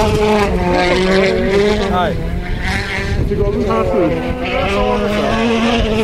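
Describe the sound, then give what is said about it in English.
A rally car engine roars loudly past spectators on a hill at speed, heading around a corner, its pitch sweeping down sharply as it goes by, then revving again. A second drop follows, with the engine snarling continuously throughout. “As they vanish around the corner, there's this great sort of movement, this wave of people who rise up the hill about 10 steps to watch the car vanish”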